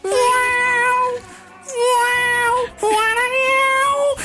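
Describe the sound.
A human voice imitates the drawn-out yowl of a female cat in heat, three long wavering wails in a row, loud, with brief breaths between them.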